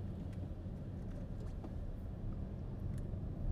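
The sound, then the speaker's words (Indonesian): Steady low rumble of road traffic in a busway lane just after a bus has passed, with three cars and many motorcycles behind, vehicles passing in a continuous drone and a few faint higher clicks and rattles over it; no voices. “Nah ini belakang mobil ada tiga nih Jalur busway Habis bisnya lewat nih di belakang ada mobil tiga Eh motor banyak di belakang nih”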